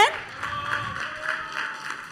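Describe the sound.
A crowd applauds steadily for a couple of seconds, a dense wash of clapping with cheering voices mixed in, heard at moderate volume from a short distance.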